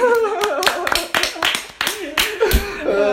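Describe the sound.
A short burst of audience clapping, around ten sharp, uneven claps over three seconds, with voices and light laughter running underneath throughout.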